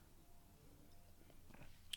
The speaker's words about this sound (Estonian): ja ma korraks võtan lonksu vett.